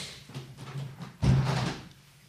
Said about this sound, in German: Warte mal, ich muss mal das Fenster zumachen, ihr Lieben.